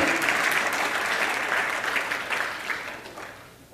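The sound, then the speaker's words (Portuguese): A crowd claps in praise of God, in steady, dense, continuous applause that gradually fades over a few seconds, with no voices standing out. “e eu vivo o melhor de Deus só quem vive o melhor de Deus, aplauda Ele, porque Ele te deu vida e vida em abundância.”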